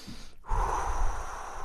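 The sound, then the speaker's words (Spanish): After a brief silence, a person draws one long, deep, audible breath, a steady airy rush that holds for over a second without any talking. “Entonces tus pulmones comienzan a respirar al ritmo del universo, al ritmo de las olas del mar, ¿no?”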